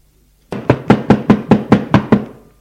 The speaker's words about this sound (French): On tape à la porte.